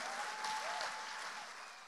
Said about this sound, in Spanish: Si usted va a aplaudir al Señor aquí.